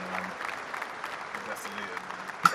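A round of applause for Luton getting their first win of the season: many hands clapping in a dense, steady patter for a couple of seconds, with one sharper, louder clap standing out near the end.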